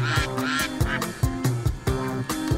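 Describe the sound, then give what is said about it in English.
A duck quack alert sound effect: a rapid series of loud, nasal duck quacks, about five or six calls in a quick uneven rhythm, prominent with no talking over them. “So, uh, can you bring us into the quack alert there”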